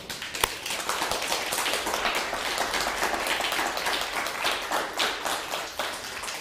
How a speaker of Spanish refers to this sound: Ingrato, dele un aplauso al bendito sea por esto.